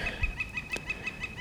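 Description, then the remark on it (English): A northern flicker calls in a rapid, steady series of sharp, high repeated notes, about six per second, moderately faint in the background with no one talking, in a snowy mountain area. “And you can hear that flicker going off in the background there.”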